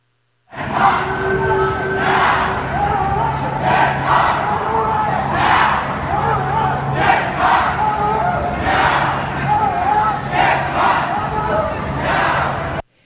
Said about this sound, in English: I want to play one other clip that was being that was just a New York City chant, the Million March in December this past year is clip 8.